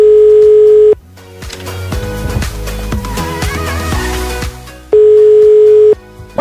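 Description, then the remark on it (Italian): A telephone ringback tone sounds twice as a phone call is placed during a live radio program. Each ring is a steady one-second beep about four seconds apart, loud and clear, with music playing in the gap between the rings. “dobbiamo chiamare Antonella, ma lei non lo sa che la stiamo chiamando”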